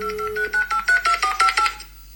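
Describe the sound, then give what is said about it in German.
Telephone dialing tones from a phone on speakerphone: a quick, evenly spaced run of about eight short electronic beeps, clear with no one talking, then fading to quiet. “ich höre es wählen.”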